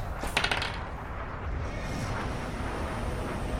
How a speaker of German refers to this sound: Wer würfelt da denn so bedrohlich die ganze Zeit? Äh, ich teste so, nur, ich übe.